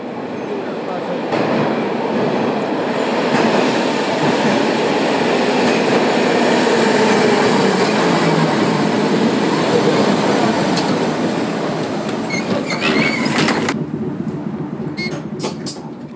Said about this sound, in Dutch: ze over het Milanese pavé rijden, het heen en weer geschud, het glijden over de banken als de tram optrekt of brusk remt.